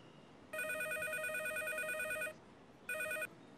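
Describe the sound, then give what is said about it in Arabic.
A telephone rings with a bright, warbling electronic trill: one long burst of nearly two seconds, a short pause, then a brief second burst that cuts off. No one speaks. “وانا ماشي جاي على التليفون”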